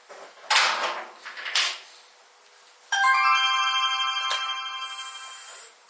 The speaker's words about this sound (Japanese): まもなくホームの扉が開きます。扉開きのお客様はご注意ください。